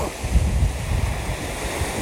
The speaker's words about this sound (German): weil das Meeresrauschen da akustisch sehr gut rüberkommt. Und warum sollte ich denn Hintergrundmusik nutzen, wenn ich doch so ein schönes Meeresrauschen generell schon als Hintergrund habe.